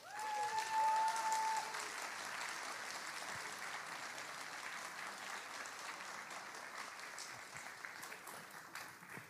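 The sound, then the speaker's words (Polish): Sustained applause from an audience as debaters, including Sławomir Mentzen, are invited onto the stage for a debate, a dense steady clatter of many hands clapping with a brief cheer or whistle near the start, continuing evenly throughout without talk. “Ogromne brawa!”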